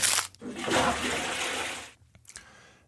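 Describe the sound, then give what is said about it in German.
A trash-bin sound effect: a loud, broad rushing clatter that lasts about a second and a half and then cuts off, followed by one short, softer knock. No one speaks. “Komm, jetzt schmeißen wir es richtig weg.”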